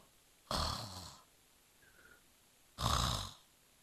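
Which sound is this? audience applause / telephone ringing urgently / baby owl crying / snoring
snoring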